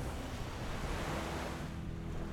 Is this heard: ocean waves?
yes